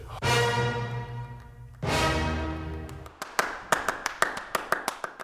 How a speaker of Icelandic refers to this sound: It's like the end of Sibelius' Fifth Symphony. And then someone claps apparently.